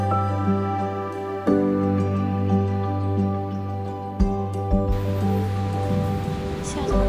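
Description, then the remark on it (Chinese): Steady rain falls outside in a continuous, even hiss that thickens toward the end, over a constant low electrical hum and a few soft thumps. “啊，对，下雨就不行了。”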